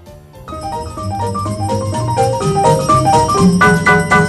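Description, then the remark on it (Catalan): A bright instrumental song intro with bouncy melodic notes over a steady bass line, building slightly in loudness, with no voices yet. “Anem directament a escoltar el tema d'aquesta meravellosa combinació, Jingle Bells.”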